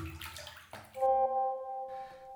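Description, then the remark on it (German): Water sloshes and splashes in a bathtub for about a second as a person sits in the bath, followed by a steady, humming tonal sound with a few faint splashes near the end. “Du telefonierst in der Badewanne?”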